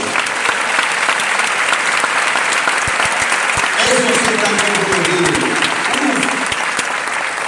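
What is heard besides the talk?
strong audience applause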